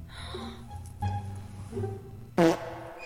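A series of comedic fart sound effects: a low rumbling toot, a short sputter, then a louder, brassy blast near the end, heard alone without any talking.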